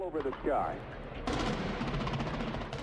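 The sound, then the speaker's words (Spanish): Wartime gunfire and explosions sound effect evoking the 1991 Gulf War bombing of Baghdad: a brief whistle over faint murmuring, then a sudden loud eruption of rapid, dense gunfire bursts crackling continuously with a heavy rumbling backdrop. “Las paredes retumbaban, las ventanas vibraban y las explosiones nos lanzaban contra la pared.”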